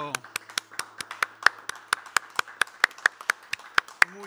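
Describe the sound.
Applause for the maestro in the form of steady, rhythmic hand clapping: about eighteen sharp, evenly spaced claps at a brisk pace, with a brief murmur of voice at the start and end.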